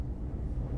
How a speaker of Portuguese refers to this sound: Esse é o barulho do trem de carga que passa aqui em casa. Não sei se vocês estão ouvindo, mas sejam bem-vindos ao meu neighborhood.